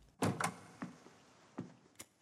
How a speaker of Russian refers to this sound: Когда дверь за остальными посетителями закрылась,